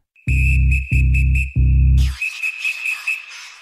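A loud, steady whistled tone carries a simple repeating melody over three heavy, pulsing bass chords, then continues alone over a busier, thinner dance backing.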